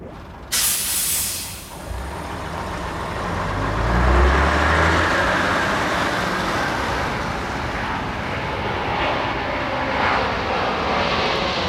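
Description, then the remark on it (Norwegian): Transport aircraft engines roar steadily in a broad, rushing hiss, starting abruptly after a brief moment and holding loud and continuous throughout, with a low rumble swelling partway through, as 60 transport planes land in the evening. “Om kvelden lander 60 transportfly”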